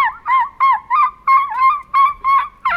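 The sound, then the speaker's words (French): A person imitates a Roman seagull's cry with a rapid series of about eight loud, nasal, squawking calls in a steady rhythm, with no talking. “D'imitation de mouette romaine.”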